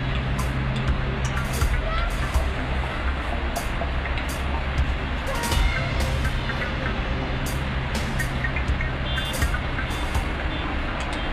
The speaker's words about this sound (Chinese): 这里是杭州石祥路和航行路的交叉口，红灯一亮，很多汽车纷纷停下，车流的间隙里就会突然冒出很多拿着小卡片的人。